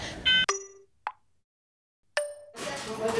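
alarm going off

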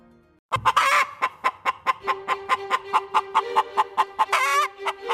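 chickens clucking

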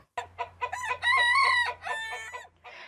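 chickens clucking

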